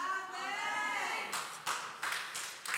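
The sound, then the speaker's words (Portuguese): A drawn-out vocal cry gives way to bursts of audience clapping that surge and fade several times, fairly loud, with no clear speech over it; the audience is giving a round of applause to Jesus. “É isso, dê uma salva de palmas a Jesus.”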